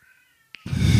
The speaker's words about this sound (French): Non, mais le chat, non, mais stop. Tu veux qu'on lui passe un micro, là C'est un bébé, le chat.